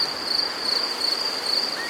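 A steady, high-pitched cricket chirp runs continuously with a slight pulsing rhythm, fairly loud against a soft hiss, with no talking.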